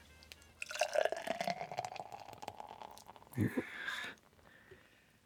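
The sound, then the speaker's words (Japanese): Ebisu beer glugs and splashes as it's poured into a glass, a real pour rather than a sound effect, a steady stream lasting a couple of seconds, followed by a brief louder gush and fizzing foam, leaving the glass very foamy, before fading out. “おおこれは SE じゃなくてリアルな音っていうのがいいですねこれね あさすが音が、ビールを継ぐ音っていうのもやっぱり素敵ですか、はい、いや素敵ですねでっていうかもうでもすみません下手くそで泡だらけになっちゃった”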